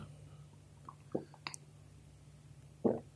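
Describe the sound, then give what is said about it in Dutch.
Someone takes a quiet sip of water: a few small wet mouth clicks and a soft gulp, spread over a few seconds against a low steady hum. “Ik ga even een slok water nemen.”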